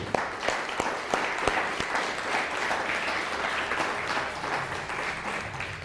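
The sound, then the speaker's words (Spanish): An audience applauds, a dense, steady wash of many hands clapping at once, with a few sharper claps standing out early on, sustained at a fairly even loudness throughout. “Denle un fuerte aplauso a todos ellos.”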